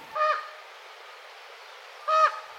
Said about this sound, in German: Dieser Rabe ruft gerade seine Artgenossen zum Futter.